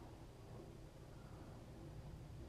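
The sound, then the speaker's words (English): A steady, soft wash of rain falls continuously with a low, rumbling undertone, fairly faint and even throughout, with no voices or distinct individual drops standing out. “with my dogs resting and the sound of the rain”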